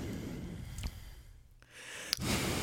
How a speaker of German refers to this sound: Sorry, ich musste atmen. Lass mich atmen.